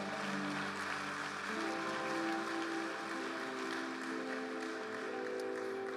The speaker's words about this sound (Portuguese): Oh, aleluia! Pode aplaudir ao nosso Senhor.